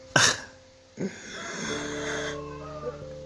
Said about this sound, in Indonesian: Iya, dengar suara ayam karena gue ngerekam ini beneran jam 3 dan gue belum tidur